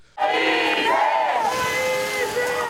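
A crowd of protesters shouts together in a loud, sustained roar of many raised voices, rising and falling in unison, chanting and yelling without a break, at a predawn protest with tyres set on fire in front of a kiosk.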